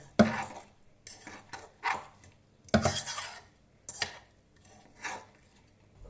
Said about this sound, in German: So, ich würde jetzt äh, die Äpfel dampfen ein bisschen. Ich würde jetzt einfach löffelweise schon mal da Lotuscreme reinwerfen.